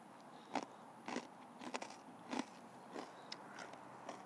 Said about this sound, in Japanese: で柿の種にバリバリバリバリ食べてるから何の説得力もない と思うんですけどはい。